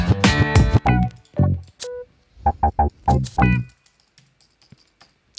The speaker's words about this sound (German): Bestens vorbereitet. Wir beginnen mit Tastaturtippen.